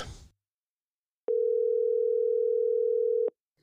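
A steady, unbroken telephone dial tone hums for about two seconds, clear, after a brief rustle, then cuts off abruptly as a call is placed.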